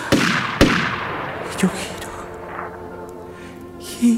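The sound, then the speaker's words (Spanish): Two sharp, loud gunshots ring out about half a second apart, each cracking and trailing off into a reverberant decay, with a quieter murmur of background sound continuing afterward. “Me pegan dos tiros”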